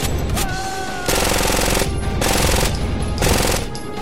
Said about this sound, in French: Mettez les silencieux, donc. Euh, ah oui, moi je pensais que ça faisait moins de bruit que ça, les silencieux.